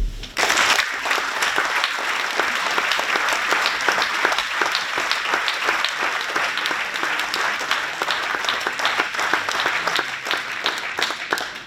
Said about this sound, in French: Je vous propose de les applaudir.